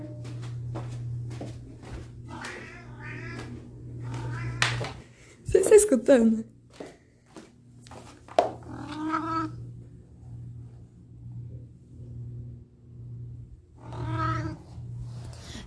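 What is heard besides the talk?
pet cat meowing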